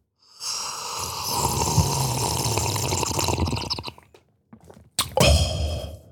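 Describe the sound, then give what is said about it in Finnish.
A loud, drawn-out slurp of a drink, wet and gurgling, lasting several seconds, followed by a brief pause and a second shorter, sharp slurp. No talking. “Tänne tuli kysymys, että voitteko ryystää?”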